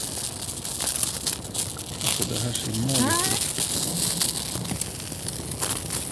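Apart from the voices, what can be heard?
butter sizzling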